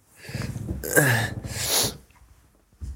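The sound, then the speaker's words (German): A small black cat hisses in two sharp, breathy bursts with a low, throaty edge, followed by a brief quiet pause and a short soft noise at the end. “Hat man das Fauchen gehört?”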